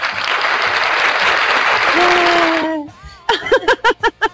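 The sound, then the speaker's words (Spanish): A burst of dense, steady clapping from a small studio audience in a radio broadcast booth lasts nearly three seconds, then cuts off and gives way to a voice speaking. “A ver, gente que me acompaña aquí en cabina, aplausos, por favor.”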